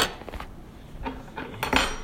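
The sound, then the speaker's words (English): A metal spoon clinks and scrapes against a pan while salsa is added to chicken and poblano, several times at an uneven pace, with short, bright knocks and a louder pair of taps near the end. “So I add two tablespoons of it into the pan with the chicken and poblano”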